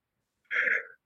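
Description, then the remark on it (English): A single sneeze: one abrupt, hissy burst that starts sharply, holds for under half a second, then trails off. Nothing else is heard around it, and no one speaks. “Bless you.”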